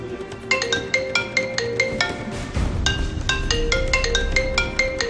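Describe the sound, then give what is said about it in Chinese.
A wife's mobile phone suddenly rings at 19:23 with a bright, repeating melodic ringtone, quick tonal notes in bursts with a brief pause midway, playing on its own without any talking. “而就在赵某一家人为儿子的迟迟没有回到家而感到担忧的时候，也就是十九点二十三分，赵某妻子的手机突然响了起来。”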